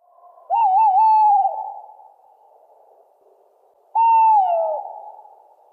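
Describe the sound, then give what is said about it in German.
A male tawny owl sings two clear, hollow hoots a few seconds apart, the first wavering and the second sliding downward, each trailing off with a soft echo in otherwise quiet surroundings. “Der Waldkauz.”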